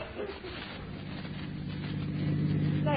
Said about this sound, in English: a young couple is found riding along the highway in an automobile